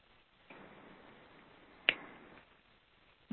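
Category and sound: human body sound, finger snap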